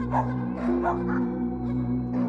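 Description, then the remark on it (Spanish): Several neighbourhood dogs bark uncontrollably in quick, irregular bursts over a steady, drawn-out howling tone from other dogs, fairly loud, with no talking. “En el momento que ese lamento se escuchó, los perros de la colonia comenzaron a ladrar de forma descontrolada y otros estaban aullando.”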